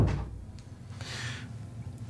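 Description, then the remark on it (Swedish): A door opens or shuts with a soft thump at the start as someone comes in through it, followed by a brief scraping swish about a second later, all fairly quiet with no one talking. “Det var en som kom in genom dörren och frågade om vi ville ha kaffe.”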